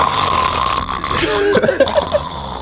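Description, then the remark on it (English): A voice imitates loud snoring: a short, rough, rattling snort with a brief wavering tail, set against a steady background hiss. “sprawled out haphazardly, halfway off of the bed, and snores extremely loud.”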